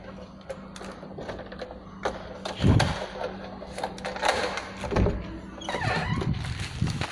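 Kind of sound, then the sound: household object, plastic bag rustling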